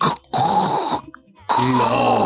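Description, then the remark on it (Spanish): A voice imitates the creaking of the house next door settling at 3 a.m., with two drawn-out, rasping groans, each under a second and separated by a short pause, fairly loud. “Pero fuerte que se oía el crujido. Y volteo y es la casa de enseguida pero tiene unos ruidos.”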